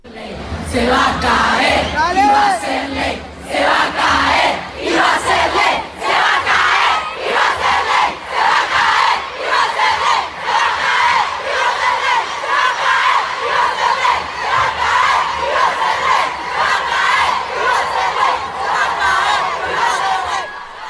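A large crowd at a protest march in Argentina chants loudly in unison, voices rising and falling in a steady rhythmic cadence with shouts and cheers mixed in, continuing without a break for about twenty seconds.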